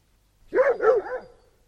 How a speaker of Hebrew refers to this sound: הנה קול כלב.